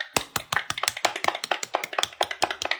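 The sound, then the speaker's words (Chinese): Hands clap in a quick, fairly steady run of sharp, bright smacks, around a dozen in under three seconds, with no one speaking. “对， 鼓掌， 举办了两场。”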